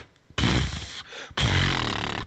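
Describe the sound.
A person imitates a horse with their voice, making two loud, raspy, breathy bursts of about a second each, separated by a short pause, with no talking.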